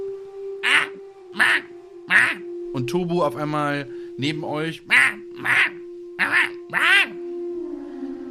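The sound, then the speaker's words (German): A voice imitates harsh, raven-like caws: three evenly spaced squawks, a brief stretch of talking, then four more loud calls, all over a steady low background hum. “Und die beiden scheinen sich zu unterhalten, aber ihr könnt es nicht verstehen. Ähm. Kann jemand Vogelsprache?”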